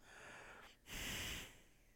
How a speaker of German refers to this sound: atmen über links frische Luft ein füllen den linken Nasenkanal, den linken Kanal wechseln, verschließen links das linke Nasenloch und atmen nun die Luft über das rechte, über den rechten Kanal, das rechte Nasenloch aus.